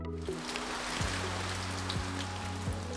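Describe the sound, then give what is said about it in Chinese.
Steady rain falls on an evening in a dense, hissing wash, with a low continuous drone underneath and a few soft swooping tones rising through it. No one speaks. “在一个下雨的傍晚，凯西遇到了阿丹。”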